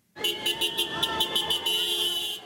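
Car horns honk repeatedly in a loud, sustained chorus, with short rhythmic toots pulsing over continuous blaring tones, as several vehicles sound off together in celebration of having regained the streets of Masaya from the opposition.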